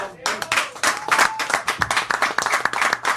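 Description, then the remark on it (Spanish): A burst of applause, dense, rapid clapping from several hands at a steady loud level, with a few brief tonal squeaks or whistles mixed in. “aplauso para ustedes”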